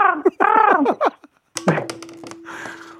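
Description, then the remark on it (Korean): A caller on Park Myung-soo's Radio Show imitates a crow with a quick run of about five loud, raspy caws, followed by a burst of noisy clatter and muffled sounds. “까마귀 다시 한 번.”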